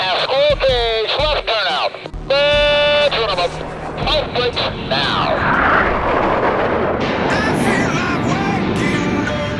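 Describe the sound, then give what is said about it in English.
Brief radio-style voice chatter clearing the aircraft for takeoff gives way to a loud, building roar of jet engines spooling up for takeoff, a broad rushing thunder with a rising whine layered on top, sustained. “You are cleared for takeoff.”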